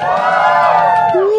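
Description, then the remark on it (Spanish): A live audience cheers and whoops loudly for a second and a half at an event in front of Parque Francia in Barrio Escalante, high overlapping voices blending into a sustained roar with a rising yell near the end. “en una entrega más aquí frente al Parque Francia en el Hub Escalante, en Barrio Escalante, con un público maravilloso que suena así.”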